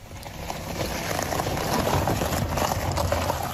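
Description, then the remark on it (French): A car rolls over a rough, broken driveway, recorded by its owner to show how damaged his driveway is, producing a steady crackling, crunching rumble that swells slightly and continues with no voices. “Et vous savez ce qu'il a fait Il a enregistré sa voiture sur l'allée.”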